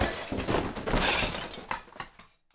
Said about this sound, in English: The computer turns off, but Dagny hears a clatter behind her.